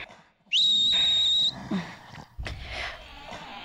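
A loud, steady whistle blast lasting about a second, sharp and shrill, followed by shuffling, rustling noise and a thump.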